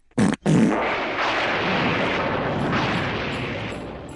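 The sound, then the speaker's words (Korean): A loud, explosive fart sound effect for a daughter-in-law's first full fart in a told folk tale: two sharp blasts at the start, then a long, roaring rush of air that keeps going for several seconds. No voices. “그런 다음 씹어서 처음으로 시원하게 방귀를 끼웠는데”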